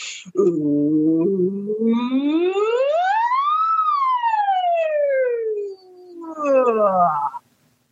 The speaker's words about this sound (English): one of them is sirens, and this will probably peek out or something or hurt your guys' ears and your micro in your headphones. But I'll hold my phone away from my face. Sirens go like this.